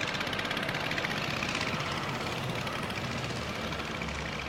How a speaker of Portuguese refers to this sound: Ela joga o maço vazio na lixeira coloca o capacete e sobe em sua vespa vermelha.